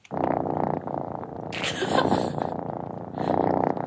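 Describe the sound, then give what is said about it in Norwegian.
A cat stretching in the sun purrs steadily, a low continuous rumble with a soft rhythmic pulse, briefly joined by a breathy hiss or rustle midway before the purring carries on. “Det er en katt som strekker seg og maler og strekker seg i sola.”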